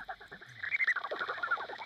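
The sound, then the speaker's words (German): Calls of flying horseshoe bats around the old house in Hohenburg, played through a bat detector held by Rudolf Leitl: rapid, warbling, chirpy tonal pulses over a steady high hum, fairly loud and continuous for about two seconds, with no voices. “Rudolf Leitl hält wieder den Bat-Detektor in der Hand.”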